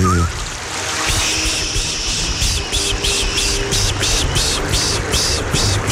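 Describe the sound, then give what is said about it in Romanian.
A clear mountain stream babbles steadily and fairly loudly, with a constant rushing wash and small rhythmic splashes rippling through it, continuous throughout. “A, păi vă gândiți că la toate apele curgătoare, cristaline de munte pe lângă care ați trecut și vi se face dor de uh, susurul lor, de natură, de păsărele și mai ales de apa aceea limpede care face face”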